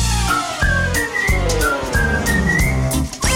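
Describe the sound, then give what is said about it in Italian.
Someone whistles a bouncy melody of short and held notes, clear, over a steady rhythmic instrumental backing with a thumping beat. “Se dimentichi le pinze fischiettando ti dirò.”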